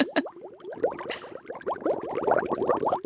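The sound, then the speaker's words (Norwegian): Thick, steady bubbling of a boiling liquid, with a rapid stream of gurgling pops and no voices, running for the whole few seconds. “Det syder og koker i jeg holdt på å si, julegrøten, i mediegryta, i Oslo-gryta, og det er klart for eh, mediebobler.”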